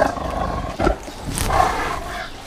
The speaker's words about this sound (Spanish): Miren, justo ahí están nuestros aliados, mis hermanos, los tigres. Vienen a unirse a nosotros.